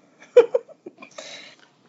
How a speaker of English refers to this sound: so today, as I clear my throat, today we're going to talk about three different things.